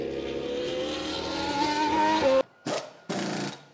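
A Formula One race car engine screams at a loud, steady high pitch, its whine climbing slightly, then cuts out abruptly and returns in two short roaring bursts.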